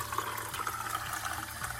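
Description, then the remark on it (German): Fresh water pours steadily into a male cat's bowl, the first water of the day, a continuous splashing rush lasting a couple of seconds with no one speaking. “Der bekommt jeden Tag frisches Wasser.”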